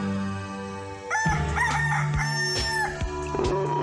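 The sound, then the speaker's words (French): A rooster-crow alarm goes off: a steady low hum gives way to a loud, drawn-out cock-a-doodle-doo with warbling, rising and falling harmonic tones, broken by a few sharp clicks, with no voices. “Saleté de réveil.”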